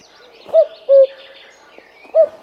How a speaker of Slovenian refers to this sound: A kukavica, sej za kukavica vemo, ne? kako se oglaša. Kuku.